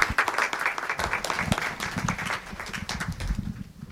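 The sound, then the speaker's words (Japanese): An audience at an IR (investor relations) seminar held in Tokyo on December 16 breaks into steady applause welcoming an As One Corporation executive, many hands clapping in a dense, crackling patter that holds fairly even for several seconds before thinning slightly at the end. “大きな拍手お願いいたします”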